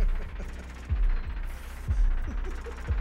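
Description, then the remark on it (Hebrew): A muffled heartbeat sound effect at the start of a vinyl record played on a turntable pulses steadily, deep low thumps roughly once a second, three beats in a row over a soft, murky hum, with no voices. “כמו תינוק ששומע את פעימות הלב של אמו ברחם.”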